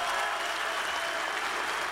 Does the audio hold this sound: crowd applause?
yes